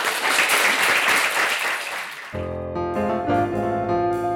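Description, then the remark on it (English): A crowd at BookLarder bursts into dense, steady applause for authors Matt Lee and Ted Lee after a book discussion, then about halfway through a tuneful music track cuts in over it while scattered clapping carries on underneath. “but a round of applause for Matt and”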